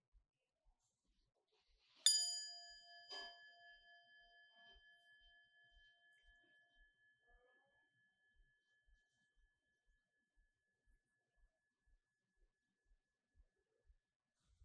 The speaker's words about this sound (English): And this time, as I do, I'd like for you to close your eyes, if you would, and then to listen to the bell and see if you can mark the precise moment when you can no longer hear the bell, when it decays, and then what's following.